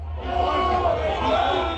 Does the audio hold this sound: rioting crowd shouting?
yes